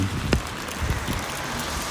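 Steady rain falling, a soft continuous hiss with a few scattered drop-like taps, moderately quiet and even throughout, with no voices.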